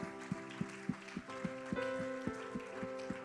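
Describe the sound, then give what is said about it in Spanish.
A church audience claps together in praise to God in a steady, rhythmic beat, the dense patter of many hands, with sustained musical tones underneath. “Dele un fuerte aplauso a Jehová, por favor.”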